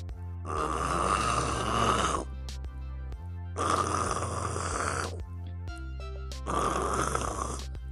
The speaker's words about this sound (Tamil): நல்லா கொரட்டை விட்டு தூங்க ஆரம்பிச்சிட்டாரு இந்த கொரட்ட சத்தம் கேட்டு ஒரு மர பொந்துக்குள்ள இருந்த எலி எங்கிருந்து வருது இந்த சத்தம் நம்ம தூங்க விடாம வருதே அப்படின்னு வெளியில வந்து பார்த்துச்சு